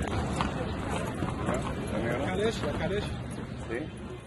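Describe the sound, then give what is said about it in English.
Horse hooves clip-clop steadily as horse-drawn carriages (calèches) move along a pedestrian walkway off the main street, known as Horse Coach Street, amid constant background bustle and indistinct voices of people. “It has no name, but people call it Horse Coach Street, and you can probably guess why. Have any of the horses drivers approached you, saying Kalesh, Kalesh, to offer you a ride?”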